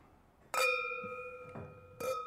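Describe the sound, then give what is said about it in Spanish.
Two bright clinks of wine glasses touching in a toast with white wine, each leaving a clear, sustained ringing tone. The first rings on for over a second before the second clink lands, fairly loud. “Eh, que suene, que suene, que suenen todas las y...”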